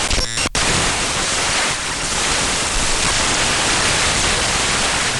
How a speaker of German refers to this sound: Ja, jetzt haben wir auch hier erstmal digitales Rauschen. Wenn ich spule, müsste aber eigentlich ein bisschen mehr was zu hören sein.